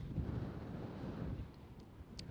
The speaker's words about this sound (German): oh, windig heute,